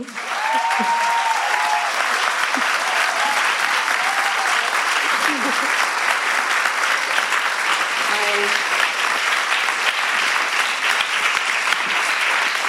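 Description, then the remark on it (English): Sustained, dense applause from a large audience, a steady wash of clapping at even loudness throughout, with a few faint vocal sounds and whoops poking through. “And I think you deserve by starting with an applause.”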